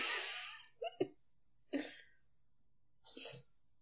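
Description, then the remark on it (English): A few short, sharp hiccups from a woman, spaced a second or so apart, each a quick voiced catch of breath, fairly soft and with no talking around them. “Another she has hiccups.”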